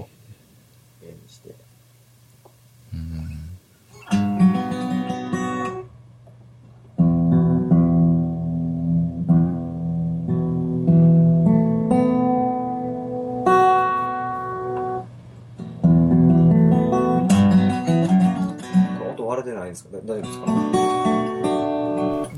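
A guitar song in drop D tuning, its low bass string droning steadily beneath ringing chords and melodic phrases that swell and pause, played fairly loud throughout.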